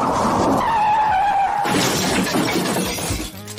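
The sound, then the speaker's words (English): A car's tires screech in a long, loud skid, then a sudden crash as glass shatters and debris clatters down, with no voices present. “All the weekend's source, news, gossip, and well, it wouldn't be a weekend recap show without traffic accidents, too.”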